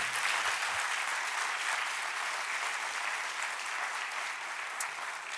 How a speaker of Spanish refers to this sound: Entonces quiero que le demos un fuerte aplauso a los pastores en esta mañana. Pastor, gracias. Y ese aplauso también lo recibe el Señor, porque por Él ellos están acá.